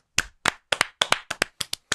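Brief applause of about a dozen sharp, bright hand claps at an uneven, fairly quick pace, sounding like just one or two people clapping, with no voices.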